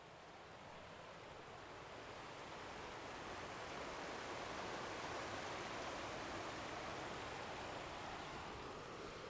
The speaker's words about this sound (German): Also wie ihr hören könnt, laufen wir gerade an einem wunderschönen, klaren Fluss, Fluss entlang, der ähm, kristallklar ist und von großen Felsen umgeben. Und er schlendert sich einmal durch das Tal, durch das wir laufen.